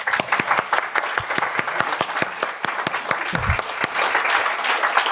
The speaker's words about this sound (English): please uh, give a big applause to co-creator of the Offensive podcast